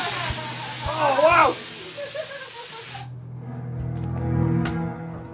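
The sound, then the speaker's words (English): A steady, loud hiss from a water spray effect in the Pie Factory maze fills the first three seconds and cuts off abruptly, with a voice speaking briefly over it; quieter talking and low background tones follow. “Oh, Water spray and everything.”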